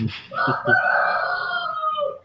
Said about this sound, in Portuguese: Caramba. O Galo curtiu. Ué, tá com o Galo aí, né